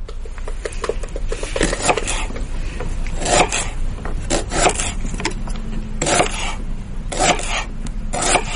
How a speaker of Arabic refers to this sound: ايه صوت تقطيع على طاوله آه، تقطيع هذا المخصصه في المطبخ